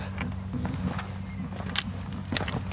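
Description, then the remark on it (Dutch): Several uneven footsteps scuffing and thudding as someone steps up and over a stile, with a steady low rumble in the background and no talking. “Eh, we stappen over een soort eh, het is wel stijl inderdaad.”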